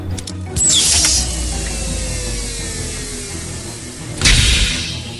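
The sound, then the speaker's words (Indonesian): A small round mechanical hatch whirs and clicks open like a little door, with a ratcheting burst at the start, a long descending gliding tone, and another sharp mechanical clack near the end, fairly loud. “Tapi bulatan itu itu membuka seperti pintu kecil.”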